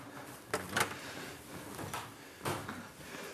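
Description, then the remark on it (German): A door quickly swings shut on its own, with a handful of quick knocks and latch clicks spread over a few seconds against a quiet background. “Schloss sich selbst schnell zu”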